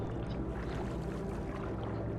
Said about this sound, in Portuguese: Em mar agitado,